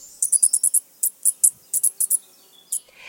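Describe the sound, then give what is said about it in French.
Tiny, very high-pitched squeaks from a shrew moving about in search of food come in quick bursts of several at a time, separated by short pauses. They are sharp and thin, with nothing else audible. “Lors de ses déplacements en quête de nourriture, elle émet des petits cris aigus qui la rendent très repérable”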